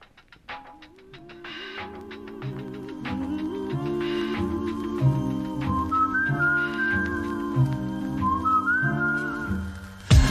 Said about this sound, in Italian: Ah, adesso io ascolterei un'altra canzone a notte fonda.